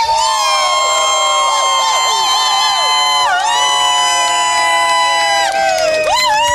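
A large crowd on the Europa FM beach cheers loudly and continuously during a rehearsal for Europa FM live on the beach, with high-pitched shouts, whistles and whoops layered over a dense roar that swells again near the end.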